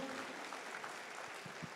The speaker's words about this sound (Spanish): Gracias a Dios por la vida de cada voluntario. Les damos un aplauso, ¿verdad?